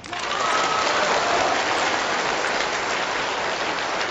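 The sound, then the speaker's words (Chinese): An audience in an event hall breaks into loud, sustained applause, a dense and steady wash of clapping that holds for about four seconds without a clear speaking voice. “各位要不要为他们鼓掌喝彩？”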